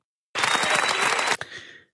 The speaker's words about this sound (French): Alors, je m'applaudis.